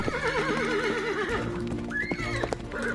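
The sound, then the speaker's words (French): A horse whinnies loudly with a wavering, trembling cry, followed by a second shorter neigh, while hooves clatter rhythmically underneath at a quick pace. “Après avoir remercié James chaleureusement, les filles se mirent alors à galoper pour traverser la plaine et monter dans la forêt qui entourait le mont Sigura.”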